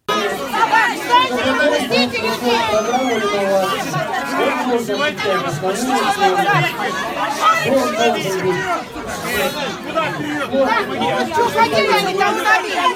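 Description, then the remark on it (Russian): Loud, dense hubbub of a packed public meeting at a district council office (uprava), attended by 300 to 400 people: many overlapping voices talking and shouting at once, a steady wall of chatter with no single speaker standing out. “Ну вот предлагаем вам погрузиться в ад на 10 секунд. Встречи проходили примерно вот так.”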